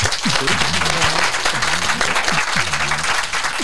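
An audience applauds a guest speaker at the end of her talk, a dense wash of many hands clapping at an even level throughout, with faint voices murmuring underneath.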